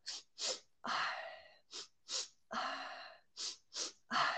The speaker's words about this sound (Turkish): Sonra e, dedim ki yani bir yandan dans ederken bir yandan da böyle e, nefesimi böyle manipüle etmeye başladım falan. İşte böyle nasıl nefes böyle işte mesela